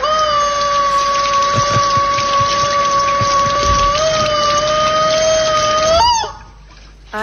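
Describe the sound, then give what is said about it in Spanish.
A rubber chicken faucet toy on a sink tap lets out one long, loud, steady shriek as the tap is opened and water runs out of its mouth, lasting about six seconds, then cuts off abruptly, leaving a brief quiet. “Cuando uno abre la canilla de la pileta se pone a gritar como descosido y le sale el agua por la boca.”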